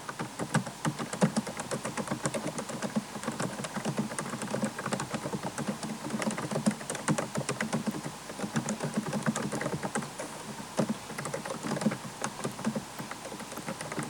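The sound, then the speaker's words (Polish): Steady, rapid typing in a notepad app on a laptop keyboard, a continuous stream of light plastic clicks and taps, with no talking. “No słychać tę klawiaturę mm, dosyć y, wyraźnie, natomiast no, nie jest to coś, co by jakoś bardzo, ale to bardzo mocno przeszkadzało.”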